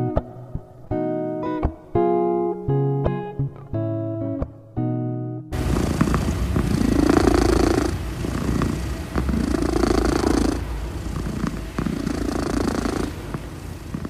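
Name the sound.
domestic cat purring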